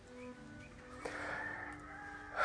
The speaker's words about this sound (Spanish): Me gusta, me gusta mucho ese concierto. El canto de esos pajaritos que varía tanto, me encanta.